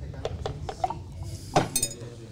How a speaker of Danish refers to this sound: Og jeg har taget et raflebær med her, og nu øh, vil du ikke starte med lige at kaste en terning